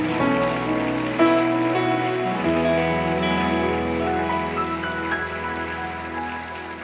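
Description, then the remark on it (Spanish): An audience claps steadily as applause to the Lord, a dense, continuous patter over sustained keyboard or organ chords, with no voices heard. “Le damos un aplauso a Él, mis hermanos.”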